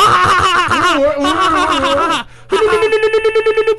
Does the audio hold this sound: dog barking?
no